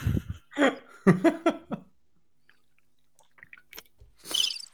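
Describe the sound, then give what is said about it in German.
Someone drinks mate: a quick run of five or six gulping, swallowing sounds, then a pause with faint small noises and a breathy exhale at the end. “ja, ich trinke mir noch einen Mate.”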